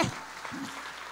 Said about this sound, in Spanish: Si ese eres tú, dale un aplauso fuerte